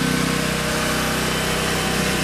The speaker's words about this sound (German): Sie haben jetzt auch das Aggregat nicht nur laufen, sondern auch was angesteckt